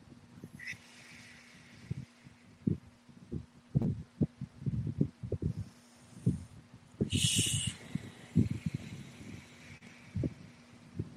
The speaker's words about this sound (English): I just learned this new type of breath work today um, where you sit up straight, take a deep breath in, and as you breathe out, you put your tongue on the roof of your mouth and you kind of make a hissing sound.